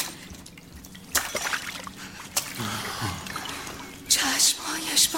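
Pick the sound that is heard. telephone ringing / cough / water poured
water poured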